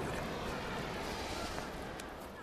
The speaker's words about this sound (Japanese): 今我々の横を車が走っていったんですが北海道大学のもう校舎の中なんですよね